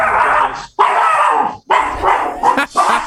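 dogs barking

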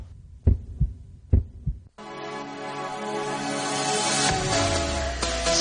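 heartbeat sound effect

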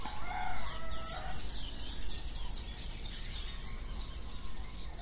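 birds singing at dawn

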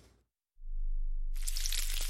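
bacon sizzling

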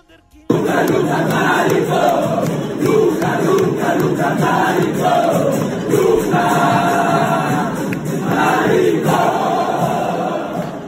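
stadium crowd chanting

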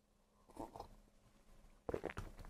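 sipping coffee

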